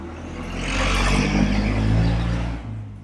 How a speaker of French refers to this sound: Ah, une voiture qui vient de passer, je sais pas si tu l'as entendu, mais c'est Jericho Cora, tu sais, c'est bruyant ici.